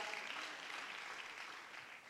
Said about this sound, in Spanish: En esta mañana, denme un gloria a Dios. Aplaudan fuerte, dime un fuerte amén.